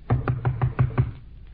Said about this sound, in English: Come on, I'll knock on the door. Go ahead.